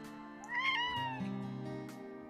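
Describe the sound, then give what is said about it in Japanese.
A cat gives one drawn-out meow with a rising then falling pitch, clear, over a steady low background hum; no one speaks. “猫の声って入るんだろうか。”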